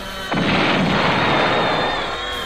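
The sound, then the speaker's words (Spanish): A sudden heavy explosion, set off with a detonator somewhere deep in a forest, bursts in and rolls on as a loud, sustained low rumble that shakes the ground, with no voices present. “En algún lugar profundo del bosque se produjo una explosión que sacudió la tierra y envió pájaros volando hacia el cielo.”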